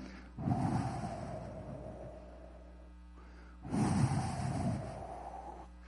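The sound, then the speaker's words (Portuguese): A person imitates wind whistling through a slightly open window in the early morning hours, with two long, breathy blown sounds carrying a faint whistling tone, separated by a short pause. “E quando vem aquela brisa suave, eu não sei se você já deixou a janela entreaberta de madrugada e ouviu aquele assobio do vento, aquele barulho mais ou menos assim, né?”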